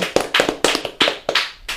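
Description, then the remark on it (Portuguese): Several sharp hand claps ring out in a quick, slightly uneven rhythm, fairly loud, with no voices over them. “Bom, galera, palmas, palmas, palmas. Palmas para todos nós.”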